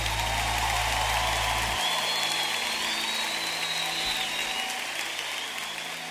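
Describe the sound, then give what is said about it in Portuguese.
A crowd applauds a piece of music steadily for about six seconds, a dense, even wash of clapping that holds its loudness and eases slightly at the end. A thin whistle-like tone rises briefly in the middle. “Essa música merece um aplauso mais forte, vai.”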